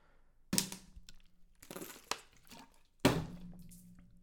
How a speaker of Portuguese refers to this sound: Mas eu tipo, bebi água, bati com água na secretária, voou a água, tenho água na secretária agora por tudo quanto é sítio a vida é linda.